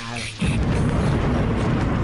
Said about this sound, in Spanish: Ya se vino la tormenta.